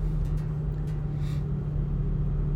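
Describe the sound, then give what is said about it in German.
Steady low engine drone and road rumble inside a moving car, recorded on a mobile phone held by the driver, a constant hum filling the cabin with faint rushing noise and no talking. “Ich fahre gerade Auto und halte mein Handy als Aufnahmegerät vor mich hin und quatsch da rein.”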